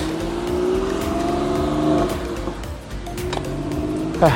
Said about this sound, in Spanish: ah, hay que dejar pasar ese carro. Listo. Ahí está, vámonos.